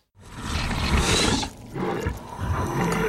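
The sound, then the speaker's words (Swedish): In a film scene, a giant toad creature met by a girl who has come down under a tree lets out a deep, loud, rumbling growl in two long roaring bursts separated by a brief pause, with no voices. “Så vi kan lyssna på hur det låter när hon har kommit ner under trädet och möter då den här paddan.”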